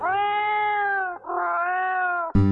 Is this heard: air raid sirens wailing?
no